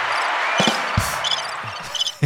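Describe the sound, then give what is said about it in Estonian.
Several punchy electronic drum hits from a sound pad land at uneven intervals, deep thumps mixed with a sharper crash, standing out loud over a steady hissy background. “näed, meil on trummid, meil on trummid ka, nendest kahest viimasest peaks saama loo küll põhimõtteliselt ju.”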